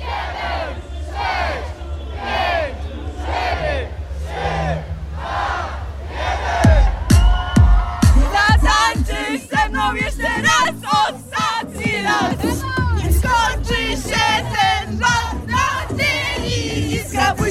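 A large crowd of students shouts and cheers together in loud, overlapping chants during a student parade through Olsztyn. Midway there is a burst of sharper, rhythmic whoops and claps, then the rowdy yelling carries on.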